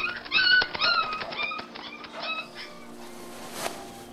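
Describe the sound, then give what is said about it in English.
A small dog, startled by someone shouting "Boo!", lets out a rapid burst of sharp, high-pitched yelps and whimpers, the cries tapering off after a couple of seconds into quieter background noise. “Well, let me kneel down and have a little conversation with you, you little companion of men.”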